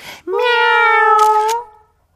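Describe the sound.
A person imitates a cat with one long, drawn-out meow, loud, held for over a second before trailing off, with a brief breathy noise just before it.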